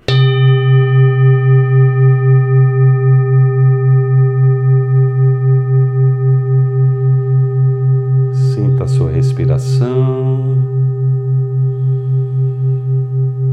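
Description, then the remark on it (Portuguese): A meditation bell rings once, its deep, shimmering tone humming steadily with a slow wavering pulse and barely fading. Toward the end, a voice speaks briefly over the lingering ring. “Apenas inspire e expire lentamente a partir do baixo ventre, se concentrando no som do sino.”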